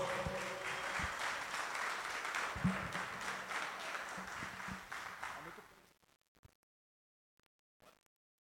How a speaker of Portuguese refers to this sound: Vamos dar uma salva de palmas, Senhor.